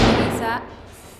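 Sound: door slamming shut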